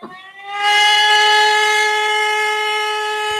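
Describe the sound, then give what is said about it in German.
A civil defense warning siren blares in with a loud, steady, harmonically rich wail that holds a constant pitch for several seconds, with no voices over it. It is a recording from the Bavarian Interior Ministry's website, and the signal repeats at least three times. “kannst du das mit den Sirenen noch mal kurz einfach erklären, wozu die da sind?”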